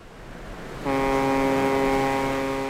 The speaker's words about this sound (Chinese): 救援船来到了喷嚏岛